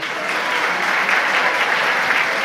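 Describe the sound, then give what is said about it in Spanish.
A crowd applauds steadily and loudly, a dense, continuous wash of clapping from many hands that holds an even level for the whole stretch without pause. “Vamos a hacer una pequeña votación, aplausómetro, ya que están aplaudiendo tanto y espero luego aplaudan también un poquito más.”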